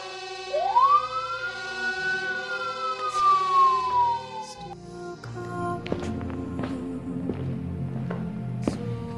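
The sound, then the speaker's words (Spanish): Fire and police emergency vehicle sirens responding to a building fire: a wailing siren rises sharply, sweeps in a long arc and slowly falls away over a few seconds, followed by clattering, tonal background noise; no voices. “Pero las llamas y el humo han alertado a los vecinos Llaman a los bomberos y a la policía.”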